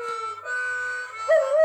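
A dog howls in a long, sustained, wavering tone that holds steady and then rises in pitch toward the end, with no talking over it.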